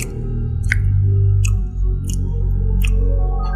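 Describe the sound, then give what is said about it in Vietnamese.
Wet chewing noises of someone eating, with a few sharp crunchy bites spaced about a second apart over a steady low rumble, no voices; heard at night from the room across the hallway. “Quân nhận ra đây như là một tiếng ai đó đang ăn uống”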